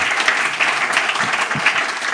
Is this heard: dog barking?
no